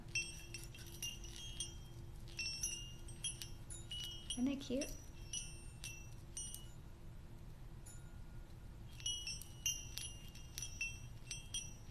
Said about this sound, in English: I forgot about my little bell.